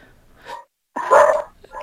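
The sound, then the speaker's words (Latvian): A dog barks a few times during a caller's phone call on a radio broadcast, one loud drawn-out bark between quieter ones, sounding slightly thin as if heard over a phone line. No one speaks. “Jā, nu, šeit mums ēterā ierēja kāds eh, četrkājainais draugs.”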